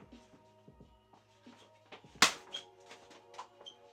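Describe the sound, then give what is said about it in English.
A single sharp hand slap cracks out midway, a quick swat against skin to kill a mosquito, standing out loudly over quiet background with faint rustling and small knocks around it. “I got a freaking mosquito here.”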